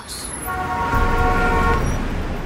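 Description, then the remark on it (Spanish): A loud, sustained car horn blares for over a second above a steady wash of busy traffic noise on an avenue with many cars, vehicles rumbling throughout. “Imagínate cruzando una avenida, pero con muchos autos.”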